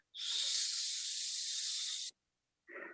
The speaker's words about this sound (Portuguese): Você vai segurar sete segundos e você vai soltar 8 segundos sibilando.